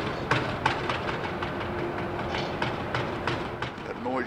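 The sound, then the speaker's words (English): Ropes and cables creak and knock on a barge pushed by a towboat, which works backwards to keep strain on them: a series of sharp, irregular strains over a steady broad rumble of water and engine, ending with a drawn-out rising groan. “hears the creaking of the ropes on that barge right there.”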